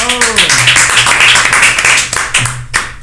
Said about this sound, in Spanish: Y tenemos también al jefe, el jefe de jefes, el jefe de diseño, René. ¡El aplauso!